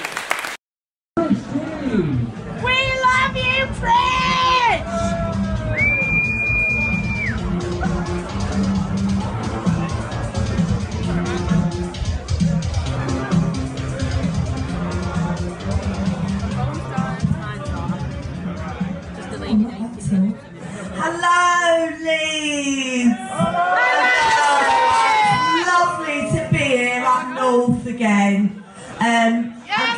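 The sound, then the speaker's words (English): A crowd applauds steadily for about thirty seconds, with cheers and whoops breaking out near the start and again toward the end, plus a brief high whistle early on. “Okay, uh, another round of applause then, please.”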